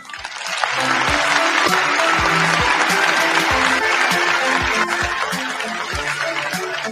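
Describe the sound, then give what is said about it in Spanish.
Steady applause from a group for a viewer being greeted on the Guateque Live live broadcast: dense overlapping claps that swell in quickly and hold at a strong level for several seconds, with no talking over it. “Un, un aplauso para Dunieskis”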